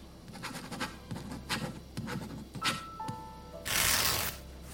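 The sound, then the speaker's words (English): Quiet scratching of a pen on paper in a run of short, irregular strokes as a next of kin's name and phone number are written down, ending with a louder burst of rustling, like paper being handled. “Could you write down the name and number for me?”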